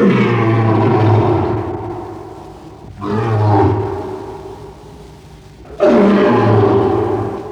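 A lion roars three times in close succession, each roar deep, rumbling and loud, with short pauses between them and no voices or other sounds around it.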